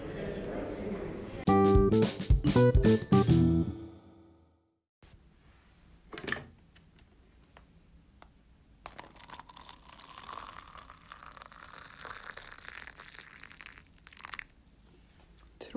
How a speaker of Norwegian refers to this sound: dette er ikke lyden av noen som tisser. Dette er lyden av kokende vann og en Earl Grey twiningspose.